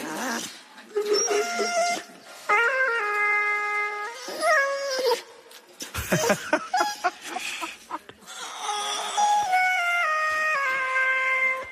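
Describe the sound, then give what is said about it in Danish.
A dog named Maggie howls, singing through autotune, its voice jumping between flat, robotic pitch steps across several long phrases with short breaks, loud, with no talking. “Altså hunden synger igennem autotune.”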